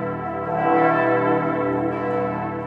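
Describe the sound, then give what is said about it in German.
A loud, continuous peal of the large bells of Bern Minster cathedral in Bern, Switzerland, several deep tones overlapping and ringing out together in a dense, sustained wash of sound with no voices. “Am Berner Münster und seinen Glocken. Glocken, die einzigartig sind und jetzt wieder regelmässig läuten.”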